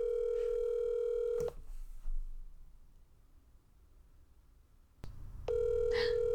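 An outgoing phone call, placed by asking Siri, ringing at 11 o'clock at night: a steady, buzzy ringback tone sounds for about a second and a half, stops for several seconds of quiet, then starts again for a second ring.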